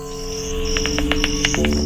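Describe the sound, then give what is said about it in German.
Bat echolocation calls, used to orient in the darkest caves: a rapid string of about ten short, sharp high-pitched clicks over a steady whining drone, moderately loud, with no voices. “Es orientiert sich in den dunkelsten Höhlen mit Echoortung. Es sendet seltsame Laute aus und kann den richtigen Weg nicht nur sehen, sondern auch hören.”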